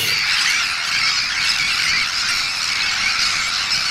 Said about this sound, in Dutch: Ja, dit is niet één kampioen, dit is een hele... Een hele kolonie. ja, ja, ja, dat is de Noordse stern. De Noordse stern. Ja, dat is een familie van het, visdiefje. Het lijkt een beetje op een meeuw, maar het is veel slanker.